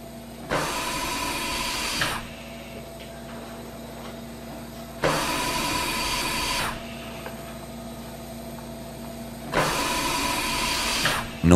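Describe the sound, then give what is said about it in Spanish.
Hospital ICU machines as heard by a severely ill COVID patient: three loud, hissing whooshes repeat at a steady pace every few seconds over a constant low mechanical hum with faint tones. No one speaks. “Esto es lo que escucha un enfermo grave de COVID en la UCI.”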